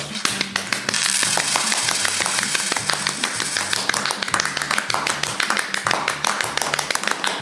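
A group applauds steadily for several seconds, many hands clapping in a dense, crackling patter that stays fairly loud throughout, with a low hum running underneath.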